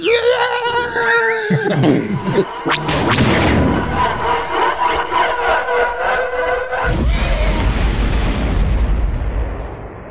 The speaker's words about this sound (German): hörst du in deinem Kopf jetzt auch, wie der Teil explodiert